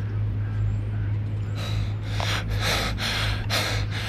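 Heavy, ragged panting starts after a quiet moment: about five harsh, rhythmic breaths, close and loud, over a steady low hum with no talking.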